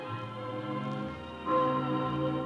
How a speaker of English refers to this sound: It's Sunday morning. Those are wedding bells, darling. Oh. Wedding bells for us.